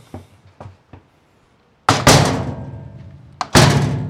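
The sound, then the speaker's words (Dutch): A heavy, thick metal vault door in the basement of a municipal archive swings shut with a loud, booming slam, followed shortly by a second hard clunk as it latches, each ringing out briefly in a reverberant space after a few soft taps. “Zo, die zit dicht.”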